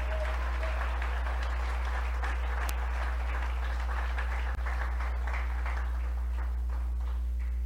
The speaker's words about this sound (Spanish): Amén. Gloria a Dios, dele palmas al Señor, hermano.